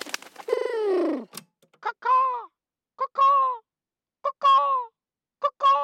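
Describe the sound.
A sleeping person makes crow-like bird calls: a long descending squawk, then four short, harsh two-part caws repeated at steady intervals, loud, with silence between.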